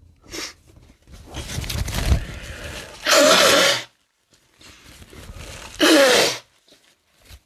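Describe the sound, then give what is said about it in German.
Two forceful nose blows into a tissue, each a harsh, breathy burst under a second long, separated by a few seconds of quiet rustling and handling noise. “Ich muss kurz Nase putzen, ich kann so nicht reden, ey.”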